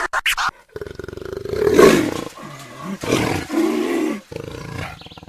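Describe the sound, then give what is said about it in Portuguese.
A jaguar roars several times in deep, rasping bursts, loud, with short breaths and growls between the calls and no voices. “você não precisa estar na selva para necessariamente ouvir esse barulho, viu? Muitas são as trairagens feitas pelos amigos da onça”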